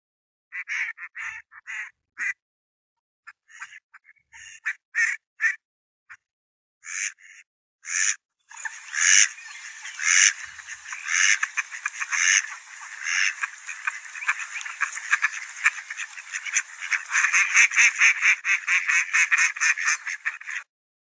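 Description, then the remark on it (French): A duck quacks in short nasal bursts, scattered at first, then building into a loud, nearly continuous run of rapid quacking with no voices. “C'est le canard qui crie comme ça.”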